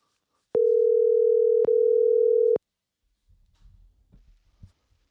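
A phone's ringing tone while calling a mobile number sounds once as a steady, loud electronic hum for about two seconds with a tiny break midway, then gives way to faint low rustling.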